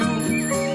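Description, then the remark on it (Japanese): A bicycle bell rings brightly over soft music, its clear metallic tones lasting under a second at a steady, moderate loudness, part of a sound logo for Flat Agency, a rental housing company in Kyoto. “なんか、チリンチリンっていうチャリングの音が。”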